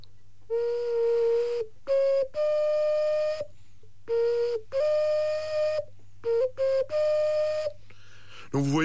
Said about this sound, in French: Les sifflets de Laponie, eux, sont, sont effectivement très primitifs. C'est une terre très brune. et noir et marron. Et noir et marron, voilà. Et bon, ben, je vais vous le faire écouter. Hein, c'est un sifflet globulaire, globulaire bien sûr.